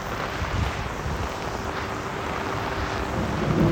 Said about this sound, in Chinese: 哦，打雷了， 害怕。